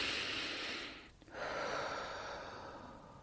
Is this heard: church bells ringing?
no